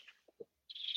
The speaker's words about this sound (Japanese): なんかあの、はい、鳥の声が聞こえてますか